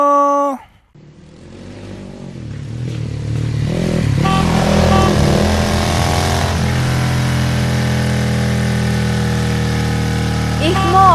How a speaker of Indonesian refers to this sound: Abisnya pelan banget nih motor depan.